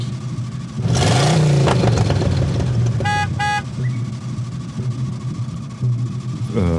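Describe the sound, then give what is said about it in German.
A car engine revs up loudly and keeps rumbling as the car drives away again, leaving two people standing outside, with two short horn toots in quick succession midway. No one speaks. “Ähm, und ja, ihr beide steht draußen, während das Auto wieder wegfährt.”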